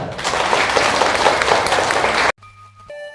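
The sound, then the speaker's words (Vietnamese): Loud, dense applause from a crowd of Buddhist followers, given as a vow at the end of a Dharma talk, fills the first two seconds as a steady roar of many hands clapping, then cuts off abruptly into quiet with faint tonal hum and sustained musical notes. “nếu các vị phật tử thấy rằng là việc làm đó nằm ở trong tầm tay của mình và là nhiệm vụ quan trọng của chúng ta thì xin quý vị phát nguyện bằng cách dâng cao tràng vỗ tay thật lớn”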